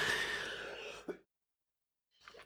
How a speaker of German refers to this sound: Mann, ich hust schon wieder. Ich muss noch ein paar Huster hier raus äh, muten